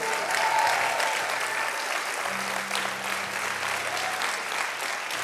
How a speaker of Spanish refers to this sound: Vamos, si usted es parte de esa casa, denle un aplauso fuerte al Señor.